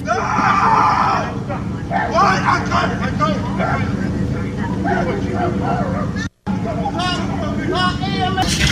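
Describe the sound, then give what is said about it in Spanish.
A man, the owner of a dog, screams and shouts in strained bursts over a loud street commotion during a fight near a car, with overlapping agitated voices and a steady low engine rumble from traffic, briefly cutting out before the yelling resumes. “Ese que grita es el dueño del perro, güey.”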